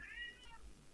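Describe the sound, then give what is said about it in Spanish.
A single drawn-out meow from a pet cat, clear, with a rising then falling pitch over about a second, heard on its own with no talking. “ese es mi gato.”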